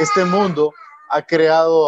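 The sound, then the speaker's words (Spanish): At home, a young child cries and babbles in loud, wavering bursts with a short pause in the middle, overlapping with someone talking. “Ay, disculpen el ruido, pero ya saben, tengo a los niños por ahí.”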